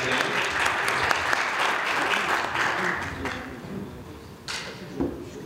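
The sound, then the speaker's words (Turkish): Steady audience applause at a union award ceremony honouring journalists, a dense wash of clapping that holds for several seconds before thinning out, with a few louder claps near the end. “alkışlarla”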